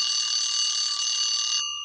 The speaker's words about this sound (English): And the alarm bell, as always, brings to an end another interview show.